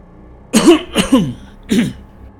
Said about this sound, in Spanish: El viejo vigilante solo hace una especie de ruidos sutiles y tose con fuerza para llamar la atención.